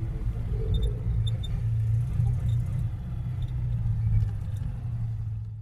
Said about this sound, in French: Voilà donc pour ce tour en deux chevaux.